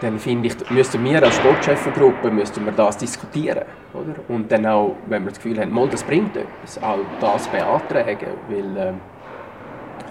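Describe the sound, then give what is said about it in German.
Ice hockey first-team training in an arena in Davos: sharp, echoing cracks of pucks and sticks ring out irregularly in the background while a man talks steadily in the foreground. “Wir erwähnen, wir sind ja hier in Davos das, was man hört äh, im Hintergrund, ist das Training für die erste Mannschaft, die gerade reist.”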